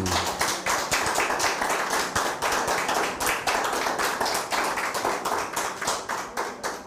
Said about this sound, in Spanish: Bienvenidos, un fuerte aplauso, Baruch Hashem.